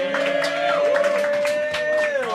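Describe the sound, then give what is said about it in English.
An audience applauds and cheers as a very funny performer is introduced on stage, in a steady, dense wash of claps, with a sustained musical tone holding underneath throughout. “Give a round of applause to this very funny boy, a very good friend of mine,”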